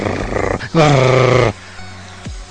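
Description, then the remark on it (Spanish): A person imitates dogs and cats fighting, snarling and growling in a rough, throaty burst that swells loudly for under a second, followed by a brief low grunt. “Sientes ese impulso de. De como perros y gatos de.”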